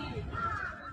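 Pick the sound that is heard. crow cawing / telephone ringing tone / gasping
crow cawing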